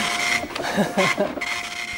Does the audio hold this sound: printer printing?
yes